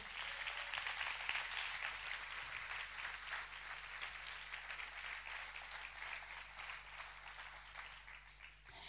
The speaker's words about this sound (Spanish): ¿Cuántos le dan un aplauso a Dios por eso?